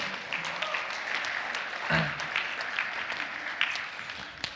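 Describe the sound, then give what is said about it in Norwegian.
An audience applauds itself for a good job, a steady, dense wash of many hands clapping at a moderate level with a few sharper claps standing out, and no talking over it. “Gi dere sjøl en applaus for god jobb.”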